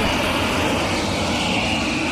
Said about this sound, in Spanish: Un avión, ¿qué fue ahí?